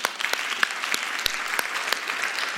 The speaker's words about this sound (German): Vielen, vielen Dank euch beiden für diesen Live-Talk. Gebt ihnen doch mal einen Applaus.